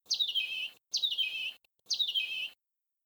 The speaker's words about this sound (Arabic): وذات يوم وبينما كان تيتو يجمع الازهار الجميله ليقدمها لامه سمع صوت عصفور يصيح